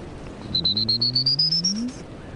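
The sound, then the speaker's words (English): A person whistles an imitation of a prairie warbler's buzzy song, controlling the air pressure between the teeth: a quick run of short pulsed notes climbing steadily in pitch for about a second and a half, fairly loud. “Or depends on the bird's uh, you know, if they had the buzzy, like prairie warbler,”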